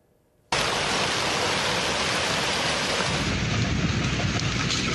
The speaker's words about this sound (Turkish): Söz verdiğimiz haber için Mersin'e gidelim. Sağnak yağış sel oldu.